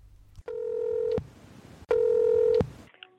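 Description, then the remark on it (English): A telephone call to the FDA being placed: two steady, buzzing electronic ring tones, each lasting under a second, separated by a brief pause, with no voices. “So the makers of the Flash Forward podcast imagine a call to the FDA 50 years in the future.”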